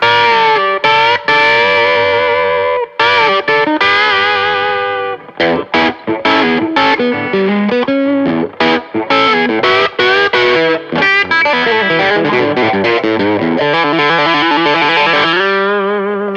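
Overdriven electric guitar played through an Archer boost pedal into a Tube Screamer overdrive pedal, thick and sustained, playing chords and choppy riffs with short stops between phrases, loud, with no voices.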